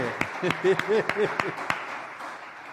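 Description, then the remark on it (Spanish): An audience breaks into brief applause to the Lord after reading verse 31 together: about eight sharp, scattered claps over a second and a half, with voices calling out over them, then the clapping quickly dies away. “Ah, un aplauso al Señor, esa hombre.”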